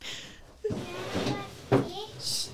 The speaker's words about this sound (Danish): Fuck fuck, fuck, vi skal lukke vinduerne. Jeg lukker vinduerne.